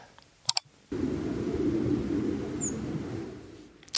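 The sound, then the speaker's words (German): A single thin, high-pitched descending nocturnal migration flight call of a European robin flits past faintly over a steady hiss of night-time background noise, after a couple of sharp clicks. “Ziehen Rotkehlchen nachts und wie hören sie sich an?”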